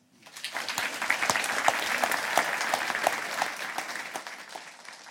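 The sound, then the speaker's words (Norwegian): An audience applauds a speaker steadily for about five seconds, a dense patter of many hands clapping at a fairly loud, even level before tapering slightly at the end. “Vi gir han applaus.”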